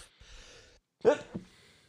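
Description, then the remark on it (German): A single sharp sneeze bursts out after a short breathy inhale, followed by a quick sniff and faint breathing as things settle. “Gesundheit.”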